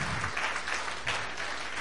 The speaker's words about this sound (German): Ich finde das total Hammer. Vielleicht geben wir nochmal einen Applaus, ja.